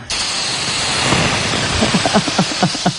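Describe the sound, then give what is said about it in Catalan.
A few drops of water are thrown onto a hot griddle and sizzle: a loud, steady hiss starts abruptly and holds throughout, with small crackles and pops bubbling up in the last second or so. “Um, I tiraré unes gotes d'aigua, a veure si se sent el soroll.”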